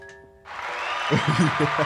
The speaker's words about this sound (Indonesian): Perlu ditepokin gak sih? Ya, tepuk dah. Ada efek padahal, tapi aku takut salah yang mana.